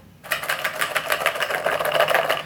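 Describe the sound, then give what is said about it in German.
A cereal bowl with a few egg biscuits in it rattled rapidly and steadily, a dense run of light clattering clicks that starts abruptly, with no voices. “das ist jetzt einfach eine Müslischale mit ein paar Eierkeksen drin, ähm, die ich jetzt alle angetatscht habe.”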